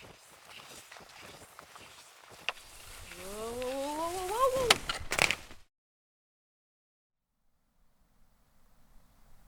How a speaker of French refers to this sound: Je suis assise, les fesses dans le banc de neige. Pas volontairement. En bas de la côte, un tournant que j'avais, disons, mal anticipé.